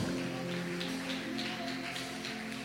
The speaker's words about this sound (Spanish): Agua viene, vamos, déle ese aplauso.